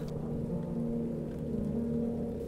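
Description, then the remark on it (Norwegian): Heavy rain pours down steadily beneath a deep, continuous rumble of thunder, the storm unbroken throughout, with no voices. “Regnværet fortsetter bare å bli verre, og så skal det bli enda skumlere.”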